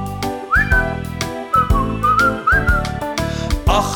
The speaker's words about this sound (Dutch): Duit je lippen, begint te fluiten, doe je ding.